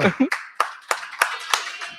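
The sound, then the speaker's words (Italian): Audience applause at a live show, welcoming a performer: a handful of sharp, loud claps in a steady rhythm, about three per second, with a faint murmur of voices underneath. “un applauso”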